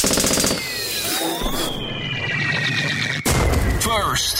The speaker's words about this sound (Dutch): Zullen wij trouwens, eh, om eh, het, jaar maar even uit te luiden, dan zelf nog een, een pijltje en een knalletje afsteken?